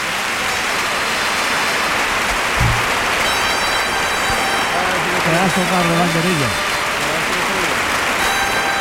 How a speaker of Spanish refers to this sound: Qué pedazo de ovación se lleva Fernando Sánchez.